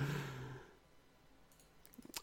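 A soft breathy exhale fades out, then a quick burst of three or four light left clicks of a computer mouse during a video game near the end, with no talking.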